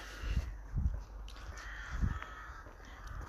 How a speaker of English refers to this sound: There will be hundreds of crows in there. And I'm not, you know, I'm not just making that up. It is a vastly populated crow tree and it's quite cool when they all decide to go because it's like a uh, I think they call it a murder of crows, don't they